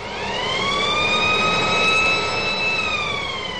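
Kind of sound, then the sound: signal or alarm, siren alarm sound effect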